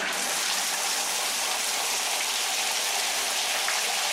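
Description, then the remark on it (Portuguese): A steady, even hiss of water spraying down from a shower while someone takes a shower, constant for the whole stretch, with no voices. “E a resposta correta é. Alguém está a tomar duche.”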